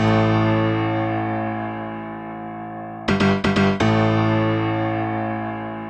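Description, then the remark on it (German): A brief inserted music jingle: a loud, sustained, distorted electronic chord that briefly stutters in a few quick rhythmic chops midway, then rings on steadily. No voices are heard. “Ja, stimmt, wir hatten Musik letztes Mal dazwischen genau.”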